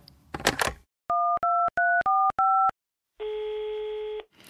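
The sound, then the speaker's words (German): A brief handset rustle, then five quick dual-pitched keypad beeps as a colleague's number is redialed, followed by a steady telephone tone humming for about a second. Clear, no voices. “Ich leg nochmal auf. Ich, ich versuch's gleich nochmal.”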